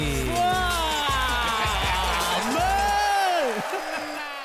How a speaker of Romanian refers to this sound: Doamnelor și domnilor, aplauze furtunoase pentru invitatul nostru special,